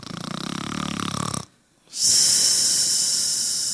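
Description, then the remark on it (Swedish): A person sitting asleep snores: one rattling, throaty inhale, a brief silent pause, then a long, loud airy hiss of breath going out. No one speaks. “Det är någon som sitter och sover nu.”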